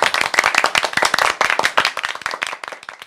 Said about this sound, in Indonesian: Wah tepuk tangan. Tepuk, tepuk, tepuk.